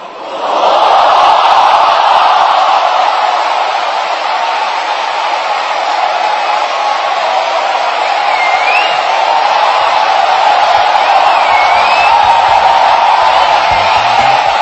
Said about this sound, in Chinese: 但是能听到一些反馈，那些欢呼声和那个反应速度，看来这个软件应该真的很好用。 对，这是罗永浩在这个锤子手机的发布会当场进行的这个测试和展示吧？